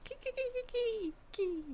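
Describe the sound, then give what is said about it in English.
A person imitates a laughing dolphin with a string of short, high, chattering squeaks followed by two longer descending squeals, moderately loud, with no other talking. “That's sort of what a dolphin sounds like.”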